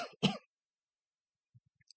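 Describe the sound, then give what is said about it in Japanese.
A couple of sharp, throaty coughs from a speaker with a sensitive throat burst out at the start, followed by quiet silence and a few faint low thumps and clicks near the end. “ちょっと咳込みます。”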